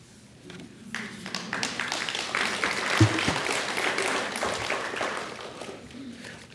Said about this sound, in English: I'm glad y'all are clapping audience.